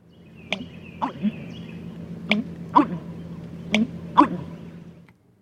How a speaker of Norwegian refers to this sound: Det er en fugl igjen. Det er en amerikarørdrum.